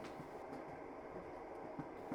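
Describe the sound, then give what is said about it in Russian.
A steam train rumbles along with a dense, steady roar and faint rhythmic clatter from the wheels as it slows down. The sound is continuous, with no voices. “слышатся тревожные свистки паровоза, поезд замедляет ход.”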